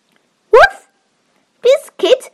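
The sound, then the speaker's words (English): A person imitates a puppy named Biscuit barking with three short, bright yips: one alone, then after a pause two in quick succession, fairly loud. “Woof, woof, Biscuit wants a light on.”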